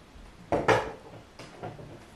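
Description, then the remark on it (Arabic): A door is pushed shut, two quick solid wooden thuds followed a moment later by a couple of softer knocks and rattles, with no one speaking. “اقفلي الباب وراك”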